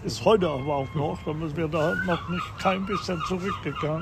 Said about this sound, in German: Hören Sie die Möwen, die ja, haben ja, auch schon Hunger. Toll, toll.